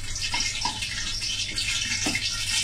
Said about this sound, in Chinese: 然后大家听到这个嘣嘣嘣嘣嘣的声音，这个时候其实是这个水蒸气，水和油接触之后变成了水蒸气，它在蒸发，是吧？好，等这个滋啦的声音没有之后。现在还有哈，再等会儿。